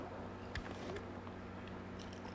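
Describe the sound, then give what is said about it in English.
A bite into a Klondike ice cream bar, with a short crunchy crack followed by quiet, moist chewing over a steady low background hum. “I will die for a Klondike bar. I would die for that shit. Ooh, and it's, it's like it's cold, but it's, it's like it's, it's almost crunchy, but it's not crunchy.”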